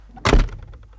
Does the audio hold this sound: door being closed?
yes